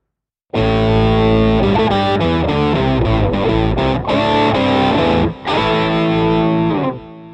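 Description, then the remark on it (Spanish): Loud, heavily distorted electric guitar chords strike up after a short silence and drive on for about seven seconds, with a couple of brief breaks between shifting chords before ringing out. “eh, yo creo que vamos a concentrarnos, vamos a poner aquí un ruido de guitarras”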